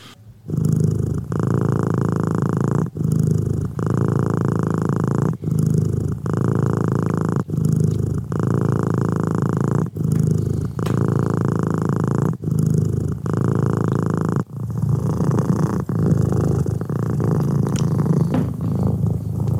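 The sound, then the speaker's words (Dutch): A cat named Billy, one of several cats in the household, purrs steadily and loudly for the whole stretch, a low rumbling drone broken into regular breaths about every two and a half seconds, with no talking. “was kattengespin van eh, Billy.”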